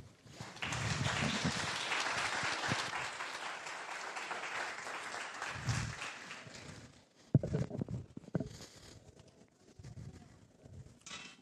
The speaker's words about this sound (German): Ähm, einen Applaus.